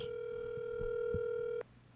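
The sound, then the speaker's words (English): An outgoing phone call's ringing tone on a call to Mike Sousa: one steady, buzzy electronic tone holds for about a second and a half, then cuts off abruptly. No one speaks. “Let's call Mike Sousa. Call Mike Sousa. Calling Mike Sousa.”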